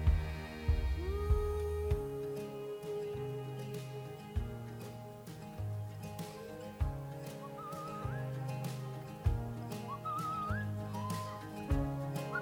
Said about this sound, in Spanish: De hecho, hay pájaros. Sí. sí la flauta ahí.